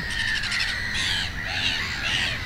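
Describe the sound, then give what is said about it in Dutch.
A noisy black-headed gull breeding colony, with adult and young gulls coming and going: many harsh, overlapping squawks and cries blend into a continuous loud clamour with no pauses, over a low rumbling background. “we zijn hier pal in een kraamkamer terechtgekomen van een kokmeeuwkolonie. Het is hier een huils kabaal.”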